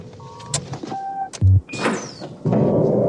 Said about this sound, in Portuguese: chega lá o Bilbo e abre a porta para ele, né?